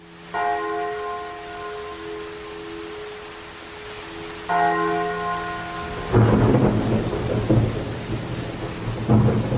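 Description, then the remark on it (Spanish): A deep church bell tolls twice at night, at midnight and at 2 a.m., slowly, each strike ringing out with a long humming decay, before rolling thunder and steady rain swell up and take over. “En la medianoche y a las 2 de la madrugada se escuchaba el sonido de la campana.”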